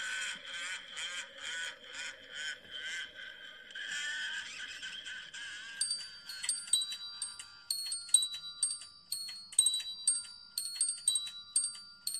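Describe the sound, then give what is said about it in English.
Krampus bells ring with no talking: first a rapid, rhythmic jangle of shaken bells, then clear, bright bell tones chiming a repeating melodic pattern, fairly loud. “That just sounds like Carol of the Bells. Krampus bells?”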